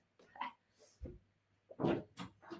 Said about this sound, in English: Yep, that's my puppy.